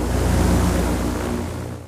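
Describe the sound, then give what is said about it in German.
A modern Zeppelin NT airship in flight: a steady, low droning engine hum beneath a loud, wind-like rushing noise, holding even before easing off slightly at the end. “So klingt ein Zeppelin, genauer der moderne Zeppelin NT.”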